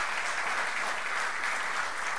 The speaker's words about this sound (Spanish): Denle un fuerte aplauso a nuestro Dios.